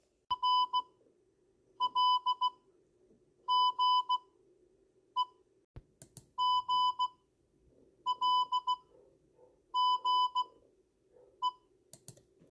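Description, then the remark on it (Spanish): Shrill electronic beeps sound in clusters of short and longer pulses, tapping out an irregular Morse-code-like pattern over a low steady hum, with a few sharp clicks between groups. “Y luego eh, hay como unos pititos, entonces se piensa que es código Morse.”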